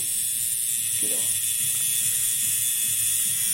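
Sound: tattoo machine buzzing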